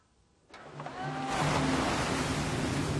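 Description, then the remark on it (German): Rough, stormy sea surf surges in on the beach at Ribeira da Barca in the northwest of Santiago island, starting quiet and building after half a second into a loud, continuous roar of crashing waves washing over the beach, with no voices. “Das Meer ist heute stürmisch. Maria und die anderen beobachten die Wellen.”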